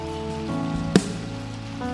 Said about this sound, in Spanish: Denle un aplauso a esta jovencita. Qué lindo. Dios te bendiga.